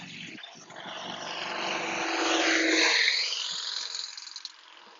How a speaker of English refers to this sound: Yeah, there's a lot of car passing by.